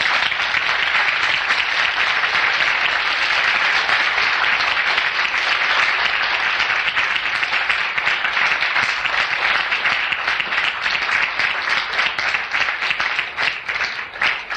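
Sustained applause from an audience, a dense steady patter of many hands clapping at an even loudness for about fourteen seconds, thinning slightly at the very end, with no voices.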